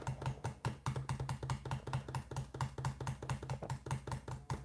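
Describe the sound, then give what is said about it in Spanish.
Rapid, continuous typing on a computer keyboard, a dense stream of sharp clicky keystrokes with no pauses, played alone at steady moderate volume. “Está escribiendo a toda velocidad para que te unas a esta comunidad.”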